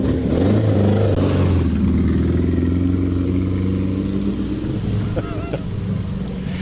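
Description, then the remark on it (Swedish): A Permobil powered wheelchair driven fast by a man rolls past, its electric motor giving a loud, steady droning hum with shifting pitch, joined near the end by a brief high squeak. “Ja, där kom eh, permobilkillen igen. Han är snabb den där killen i permobilen, har du sett det?”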